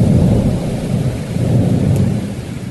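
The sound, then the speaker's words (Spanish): A loud, steady thunderstorm: heavy rain hisses continuously while deep thunder rumbles low and sustained throughout, with no voices present. “Todo fue bien hasta que nos sorprendió una gran tormenta y el barco naufragó.”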